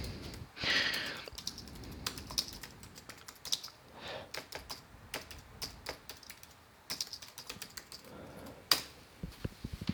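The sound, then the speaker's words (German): Quick, uneven clicks of someone typing a password on a computer keyboard, in short bursts with brief pauses and a soft rustle near the start. No one speaks. “Äh, man muss auch tippen.”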